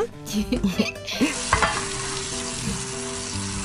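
Dishes being washed at a sink: a steady hiss of running water, with a few sharp clinks and clatters of plates and utensils early on, fairly loud, no voices.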